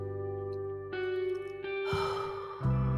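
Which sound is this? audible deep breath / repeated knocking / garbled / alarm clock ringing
audible deep breath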